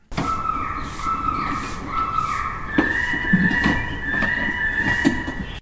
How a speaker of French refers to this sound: Un haut-parleur très puissant diffuse des cris d'oiseaux en détresse et d'autres de rapaces qui chassent. Une bande sonore d'un peu plus d'une minute qui se répète incessamment dès 8 heures du matin et pour toute la journée.